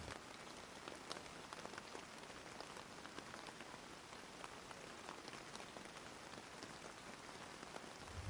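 Steady rain falls continuously on a surface, a dense crackling patter of countless drops with no pauses, even in loudness throughout, with no voices.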